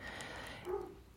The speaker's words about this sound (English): Sorry if you can hear my dog barking.